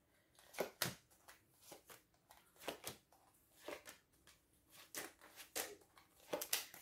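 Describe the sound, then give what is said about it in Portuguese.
Tarot cards being shuffled and handled: a run of crisp, papery riffles and slaps, irregular in rhythm, with no voices over them. “Portanto, vamos então ver as vossas, as vossas cartas.”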